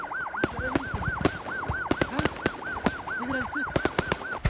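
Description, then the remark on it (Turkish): Fireworks stored in a fireworks factory's depot pop and bang in rapid, irregular succession as the factory burns and black and white smoke rises, sharp loud blasts following one another closely, while a steady wailing siren rises and falls continuously underneath. “havai fişekler ardarda patlamaya ve fabrikanın üzerinden siyah ve beyaz duman bulutları yükselmeye devam ediyor.”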